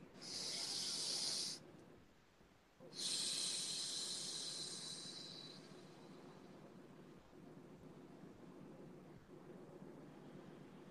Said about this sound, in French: Alors, une respiration.